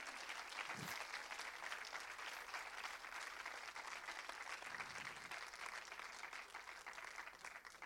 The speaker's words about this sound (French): Vous pouvez applaudir de nouveau